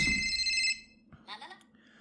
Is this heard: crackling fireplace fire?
no